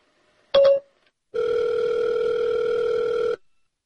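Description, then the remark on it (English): A phone call to Seriously Serious placed on an iPhone through Siri rings: a brief electronic blip, then one long, steady, clear ring lasting about two seconds before it stops. No one speaks. “So you actually get to hear him calling Seriously Serious through his iPhone, through Siri.”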